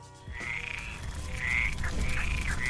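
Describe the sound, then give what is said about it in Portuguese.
Repeated trilling frog calls, several drawn-out buzzy notes in a steady rhythm, fairly loud over a low rumbling background with no voices. “Até porque o canto ele é uma característica muito importante dentro dos grupos de anfíbios, né?”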